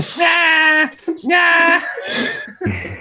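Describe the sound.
A voice mimics a baby crying, re-enacting a bit from The Office in which Kevin makes the sound at Pam, with two drawn-out, high-pitched wails in quick succession, loud, followed by a brief vocal sound.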